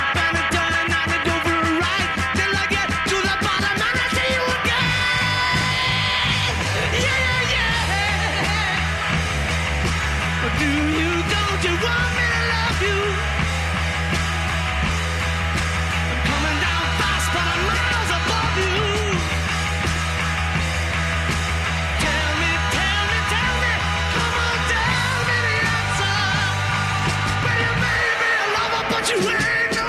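Loud, distorted rock band playing at full volume with pounding drums and grinding guitars, winding down in the final seconds as the drummer gives a hoarse shout about having blisters on his fingers near the very end.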